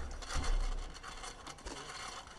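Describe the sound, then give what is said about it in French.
Gritty, continuous rubbing of a bicycle's disc brake pads and disc clogged with dirt from rain and muddy ground, a rasping scrape that swells and fades slightly in uneven pulses, with a low rumble near the start and no voices. “Ouais, c'est comme il pleut et que le terrain est gras, c'est une accumulation de, saleté au niveau des plaquettes de frein et du disque, donc euh, ça frotte un petit peu”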